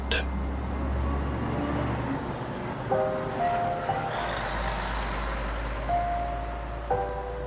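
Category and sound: vehicle, truck engine driving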